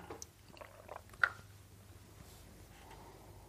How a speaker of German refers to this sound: Wir können ja mal kurz äh, einen Schluck Wasser trinken darüber.